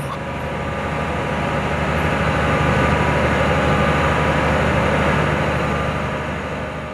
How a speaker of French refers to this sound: Pour son alimentation en électricité, l'île de Sein n'a jamais été reliée au continent. Depuis des décennies, elle est alimentée par des groupes électrogènes au fioul, dont on peut entendre au pied du phare le ronronnement sourd.